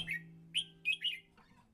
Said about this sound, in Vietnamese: con trào màu đực đang hăng say tán tỉnh bạn tình. Nó liên tục nhấp đuôi, khoe giọng, tiến về phía các con chim mái.